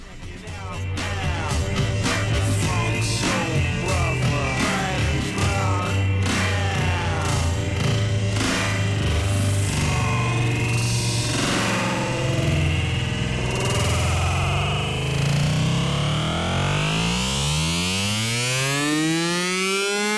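A loud electronic big beat track with dense, distorted synth layers and a wailing, siren-like texture, building into rising sweeping tones near the end; no one speaks over it.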